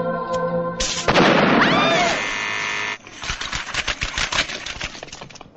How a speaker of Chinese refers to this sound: 刚刚拿错了一支快速引爆的电光炮，但是我连眼泪都没流一滴。